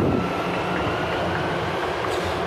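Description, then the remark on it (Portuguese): A São Paulo metro train runs with a steady, loud, continuous rumble and rattling roar, with no voices and no pauses. “Ei, meu Deus, agora fica complicado, que a gente vai migrar, né, de metrô, de linha.”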